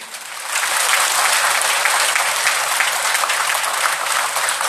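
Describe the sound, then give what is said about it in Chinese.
A crowd applauds steadily, a dense crackle of many hands clapping that swells in the first second and then holds at a loud, even level with no voices. “鼓掌声明显的就响起来了。”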